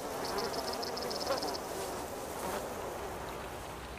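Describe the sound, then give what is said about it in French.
Bees and other pollinators buzz outdoors around an insect hotel, with a faint, rapid, high-pitched pulsing during the first second and a half over a steady wash of distant highway traffic and passing cars. “C'est sûr qu'on entend au loin l'autoroute, puis les bruits des voitures qui passent, mais on entend aussi les bisbis des pollinisateurs, des abeilles.”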